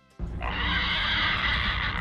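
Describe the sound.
A loud, sustained high-pitched squeal, a person imitating a pig, starts abruptly and holds steady for about two seconds.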